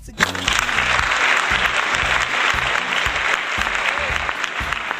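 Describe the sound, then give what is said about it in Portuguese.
A recorded applause sound effect played on a sound system: sustained clapping from a crowd, a dense steady clatter of many hands at constant loudness for the full length, with a low rhythmic thump running underneath. “Você tem aplausos no seu som?”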